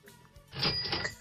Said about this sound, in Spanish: ¿Qué? ¿Qué cosa? Los es que la caja registradora, Pepe, dice René que te hablan. Ah, bueno, pues yo que haga clan, clan, la caja, pues siempre es muy agradable, chiquitín.